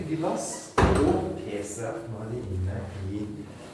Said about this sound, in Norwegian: Vi lukker opp en dør, ja, så er vi plutselig inne.